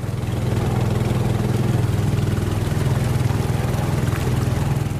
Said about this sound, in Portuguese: Para ficar no exemplo das comunidades, hoje é mais comum encontrar a rabeta, que é um motor de propulsão para barcos pequenos.